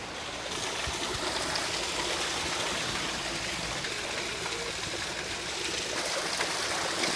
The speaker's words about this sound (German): Jetzt sind wir im chinesischen Garten. Ja, chinesischer Garten. Hier taucht man ein und dann ist es ganz anders. So, und wenn ein Platz, dann ist das ein schöner Platz hier mit dem Wasserfall.